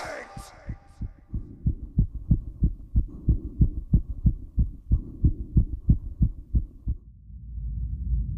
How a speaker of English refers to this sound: Louder, louder, louder, louder. Villains! I shrieked. Dissemble no more! I admit the deed! Tear up the planks! Here! Here! It is the beating of his hideous heart!